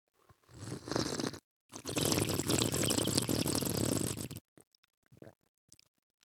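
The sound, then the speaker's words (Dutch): Two loud, airy slurps of coffee, drawn in with plenty of air as in wine tasting, the second long and noisy, followed by a few quiet mouth sounds. “eigenlijk moet je koffie als je, echt wil proeven, moet je het net doen als bij wijn, zo.”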